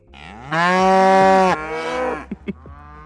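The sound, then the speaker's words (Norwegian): A spotted brown cow in Norway lets out a loud, sustained moo lasting about a second, followed by a quieter trailing bellow and a few short breathy grunts. “den rauter sånn der.”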